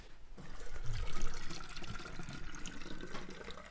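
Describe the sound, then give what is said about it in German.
Water pours steadily into a bottle, a continuous splashing gush with a faintly rising tone as it fills, moderately loud with no talking. “Jetzt füllen wir noch mehr Flaschen mit Wasser.”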